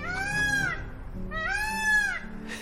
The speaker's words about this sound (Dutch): En die. Die brul, die leek waarschijnlijk dus meer op iets wat, wat vogels doen.